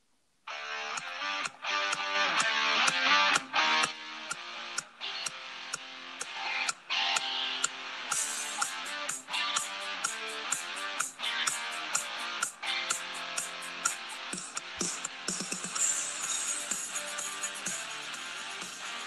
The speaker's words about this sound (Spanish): vamos a un corte, ¿no, Emiliano? Así es, con la canción … de …